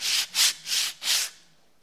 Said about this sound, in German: Eine Unterlage drunter. Und schleift erstmal. Und seht ihr, ist schon ein bisschen heller, ne? Ein bisschen zumindest. Schleift erstmal den ganzen Speck ab.